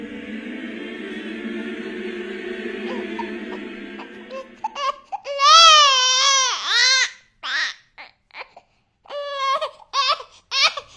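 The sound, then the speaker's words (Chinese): A steady low hum for the first few seconds, then an infant starts crying in a graveyard: loud, high, wavering wails in several broken bursts with short gaps between them. “接着，女人消失的坟场里传来一阵阵婴儿的啼哭声。”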